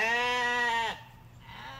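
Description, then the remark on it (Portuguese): A sheep in a flock being led along gives one long, loud, wavering bleat lasting almost a second, then it breaks off, leaving a soft, steady background hush with no voices. “Então, Moisés se levantou e levou o rebanho em direção à fonte da estranha luz tremulante.”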